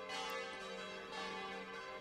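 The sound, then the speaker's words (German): Church bells of the Catholic parish church in Oberbessenbach, Germany, ringing for noon from the church tower, which holds four bells, a steady wash of overlapping metallic tones with strong sustained harmonics and fairly even loudness, no voices present. “Zwölfuhrläuten Oberbessenbach”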